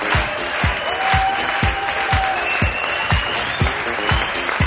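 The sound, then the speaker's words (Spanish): Steady audience applause in Murcia, dense clapping across the whole clip, with a regular low thump pulsing underneath about twice a second and a faint whistle-like tone drifting in the middle. “Un aplauso para todos vosotros.”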